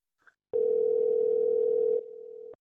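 One steady electronic ring tone from a phone line on a recorded phone call that went to voicemail, held for about two seconds with a slight drop in level near the end, clear, with no talking.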